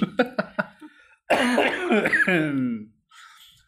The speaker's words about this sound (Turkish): öksür öksür.